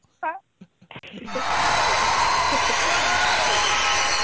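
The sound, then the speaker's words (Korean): After a brief voice at the start, a canned applause special effect, played during a broadcast, bursts in and holds steady: dense, continuous clapping from a crowd, loud and sustained to the end. “제가 지금 박수를 한번 쳐드릴게요. 여기 특수 효과 있거든요.”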